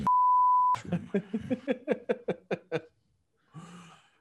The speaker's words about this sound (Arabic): هاي بدنا نعملها بيب